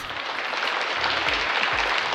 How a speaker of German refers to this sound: Ihnen allen Großeltern und Großmütter einen großen Applaus.